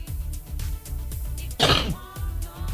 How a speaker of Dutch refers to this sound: Ik ook al te hoesten. Een dropje.